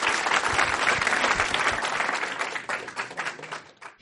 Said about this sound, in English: And um, let's give John one more big round of applause.